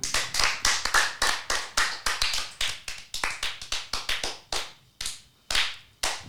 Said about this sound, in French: So, merci encore pour ces applaudissements qui, qui, comblent le vide.